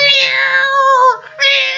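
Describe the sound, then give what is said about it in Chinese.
A human voice imitates a cat's meow: a long, loud, strained yowl that wavers in pitch, breaks off briefly, then rises again into a second shrill burst. “喵，这一叫唤，把这帮子小伙子给吓的，说这什么玩意儿这么快啊？”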